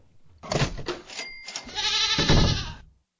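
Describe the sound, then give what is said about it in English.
A goat bleats loudly, a wavering, nasal cry lasting a couple of seconds, with a brief break partway through before a longer, quavering bleat. The goat is revealed behind a door on a game show. “There's nothing behind your door but this here goat.”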